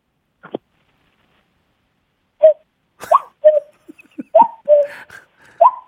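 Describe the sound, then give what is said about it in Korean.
A person's voice imitates a cuckoo, repeating the two-note hooting call several times in quick succession, fairly loud, after a short burst of sound and a pause. “뻐꾸기 소리입니다. 뻐꾸기요.”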